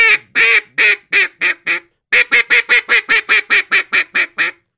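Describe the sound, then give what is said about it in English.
Rapid, loud single quacks blown on a duck call, about seventeen sharp notes in two quick bursts with a brief pause between, starting at the top of the scale and coming down, clear with no talking. “It's still just single quacks, starting at the top of the scale, coming down. I made them quicker.”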